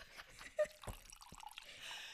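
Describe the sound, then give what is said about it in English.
Spilled liquid drips and splatters in a few quick, uneven drops against a hard surface, fairly quiet, with faint background noise and no one speaking. “oh, man, I just spilled this shit.”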